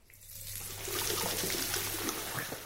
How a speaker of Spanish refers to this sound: Enjuágate muy bien las manos con abundante agua chorro.